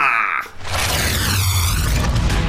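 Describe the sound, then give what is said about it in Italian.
A loud, dense theme jingle opens with a brief bright tone, then bursts into a booming, full-band wash with a sweeping whoosh and a steady low pulse underneath. “lo scopriremo solo vivendo, ma dopo la sigla!”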